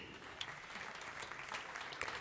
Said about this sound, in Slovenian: No, in z aplavzom se predstava tudi končuje.